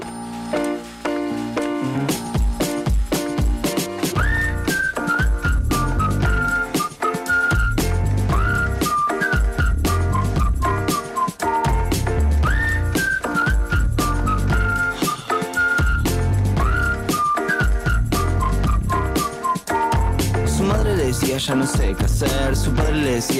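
A recorded pop song plays loud and steady, with a punchy beat and a bright whistled melody running over the music throughout, no voices talking.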